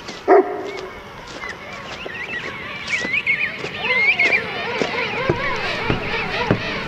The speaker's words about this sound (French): Un peu de silence, s'il vous plaît. Un peu de silence. On se calme, les pingouins.